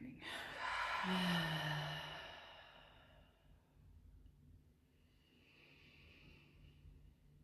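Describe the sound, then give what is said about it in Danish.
A single deep breath: an airy inhale that flows into a long exhale with a soft voiced sigh, fading into quiet room tone for the remaining seconds. “Så øh, lad os lægge en hånd på hjerte og joni. Og få gang i den dybe vejrtræk.”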